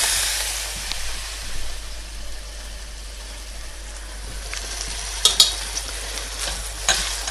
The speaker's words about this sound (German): Und während das vor sich hin brötschelt, können wir dann schon mal das Gemüse, ich hatte ja erzählt, da kommt das Gemüse rein.